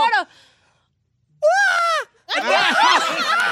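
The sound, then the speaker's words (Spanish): A person lets out a brief cry, then two loud, drawn-out theatrical yells done on request, their pitch wavering and bending as the voice strains through each exaggerated shout. “Un grito perrón es ir ¡Ah!”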